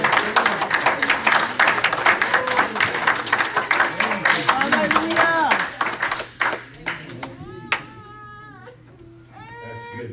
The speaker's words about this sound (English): So let's all give the Lord a hand clap.